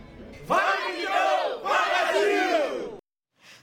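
A loud crowd of Brazilian national team football fans roars and chants in two sustained bursts, many voices rising and falling together, then it cuts off abruptly before a faint murmur returns.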